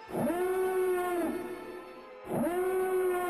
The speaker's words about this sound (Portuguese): E vocês escutam a sirene da nave de alerta. Três naves estão chegando.